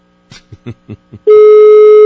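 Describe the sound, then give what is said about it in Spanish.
After a few brief, clipped voice-like sounds, a loud, steady telephone tone cuts in and holds unbroken to the end, the flat electronic drone heard after the woman being called on her cell phone hangs up. “Oye, ¿por qué me cuelga?”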